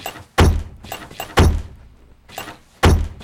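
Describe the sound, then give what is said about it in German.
A wooden wardrobe door is worked open and shut several times, giving three heavy thuds with a softer knock between them and faint rattling in the gaps. “Der, K der Kleiderschrank. Schrank, der Schranktür.”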